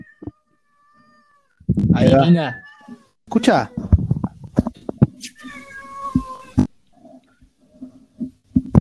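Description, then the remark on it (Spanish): A cat in heat lets out two loud, drawn-out, wavering yowls, followed by a person talking briefly while softer cat noises continue in the background. “Se escucha un gato en celo.”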